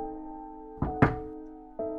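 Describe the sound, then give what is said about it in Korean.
Dull knocks on a bathroom door at night, two in quick succession followed by a short pause and a third, as someone knocks and is answered by knocking from inside, over a steady low electrical hum with no voices. “누가 안에 있나 싶어 노크를 하자 화장실 안에서도 노크로 대답했다.”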